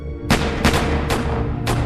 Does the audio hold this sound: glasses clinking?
no